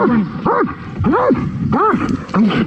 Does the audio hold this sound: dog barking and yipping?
yes